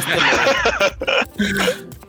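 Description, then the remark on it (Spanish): A person voices a string of quick, yappy barks, loudly imitating a corgi dog, with brief gaps between the bursts. “el Freud va a ser este el corgi. sí, exacto, yo quiero ser el perro”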